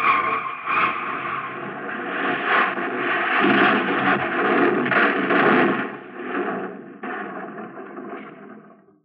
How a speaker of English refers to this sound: The car rolled off the jack and went into motion. I yelled just for effect, but it was only a few feet to the edge. The car shot over, hit a ledge about 20 feet below, and then crashed on down to the bottom.